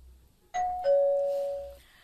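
A doorbell rings with a two-note ding-dong: a short higher chime, then a lower tone that rings out and fades over about a second. No one speaks.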